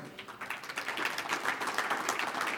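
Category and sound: crowd, audience applause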